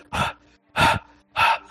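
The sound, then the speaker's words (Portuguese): A voice imitates heavy panting, like the camera of the Pathfinder's console moving along, three loud breathy huffs in a steady rhythm, each about a quarter second long with short pauses between, clear with no talking. “Um, um, o que parece ser uma tela assim e tal, e a câmera né, do, do console do Pathfinder ele vai, vai andando assim, tipo bem ofegante.”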